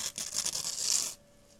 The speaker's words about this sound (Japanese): これをちぎって浸す